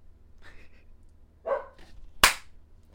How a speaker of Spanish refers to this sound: pero los ladridos. Shh.